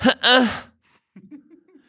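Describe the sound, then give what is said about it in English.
A voice gives a loud, whiny two-part protest sound, a sharp rising burst then a drawn-out falling whine, followed by quieter murmured talk. “You, you make this sound when you're feeling wrong.”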